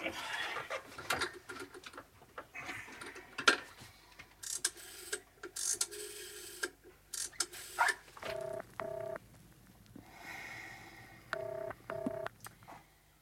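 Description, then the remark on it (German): A telephone, found under a wastepaper basket, being dialed: rattling, clicking handling noises give way to a series of short, evenly paced two-tone keypad beeps, moderately loud, with no voices. “Äh, ja, wo ist denn der Apparat? Ach, da, unterm Papierkorb.”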